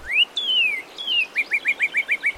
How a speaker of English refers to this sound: Wait, did you hear that? I'm pretty sure that was a cardinal. Let me see. It came from over here, and yep, there is a bright speck of red in that tree.